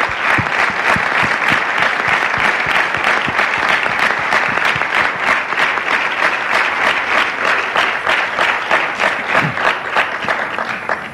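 A large audience applauds steadily for about eleven seconds, dense clapping filling the room at a constant loud level with no talking over it.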